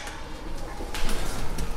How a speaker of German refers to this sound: Oben angekommen, öffnet mir ein Mitarbeiter die Tür zum Büro.